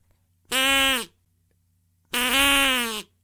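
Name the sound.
duck call being blown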